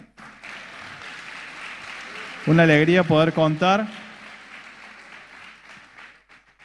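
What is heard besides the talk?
welcoming applause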